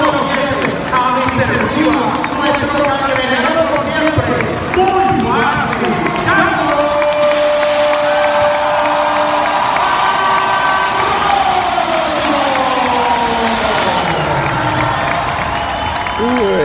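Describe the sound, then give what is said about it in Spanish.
A dense, echoing roar of a large crowd fills a stadium during a ceremony retiring a jersey number 7, with murmuring, shouts and reverberant announcements blending together, captured loudly and somewhat muddily on a mobile phone. “Me perdonan por el eco y el 20.000 ruido, pero es que esto fue grabado por el celular cuando estaba presente. eso en el estadio hay un eco.”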